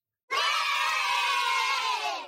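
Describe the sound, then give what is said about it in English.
A crowd cheering sound effect: a loud crowd bursts into cheering and screaming, a sustained wall of excited voices that starts abruptly and holds steady for about two seconds before starting to fade. “I thought no one was going to cheer for me because it's been so long.”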